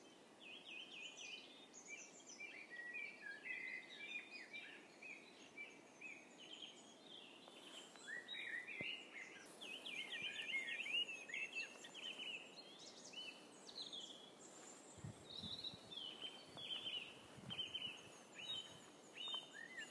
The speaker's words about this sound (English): Yes, it's really loud here. There's plenty of uh, certainly great tits and robins that I can hear, and I think a blackbird as well.